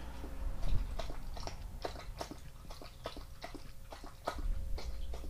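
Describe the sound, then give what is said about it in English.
A dog, Rio, laps water from a bowl: a steady run of wet slurping clicks, roughly two per second, moderately loud, with no one talking over it. “Can you hear Rio fucking chugging his water?”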